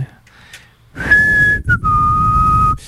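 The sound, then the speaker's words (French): At about 3 a.m., after a quiet moment, an odd whistling rings out in two long, steady tones, the second slightly lower, fairly loud over a low background rumble. “on entend des drôles de sifflements encore une fois.”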